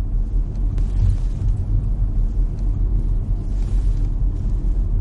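A steady low rumble of a car engine and road noise runs throughout as the car is driven, with the driver's daughters riding in the back seat; a continuous droning hum with no voices.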